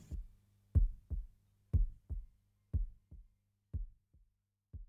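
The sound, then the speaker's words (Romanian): A human heartbeat on a rock album thumps steadily in low, muffled double beats, lub-dub, roughly once per second, about five beats heard alone with a faint low hum underneath. “când toate s-au aliniat pentru a crea o capodoperă pe ritmul unei inimi umane într-o călătorie năucitoare de 43 de minute.”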